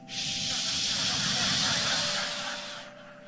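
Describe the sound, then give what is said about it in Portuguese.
A voice imitates picanha sizzling on a charcoal grill with one long, steady, loud hissing 'tsss' that holds for about three seconds before cutting off. “aí você bota lá aquela, aquela grelhazinha, aquele, aquele, aquele carvãozinho maneiro queimando, aí tu joga aquela, aquela picanha em cima, daqui a pouco começa o hino de louvor.”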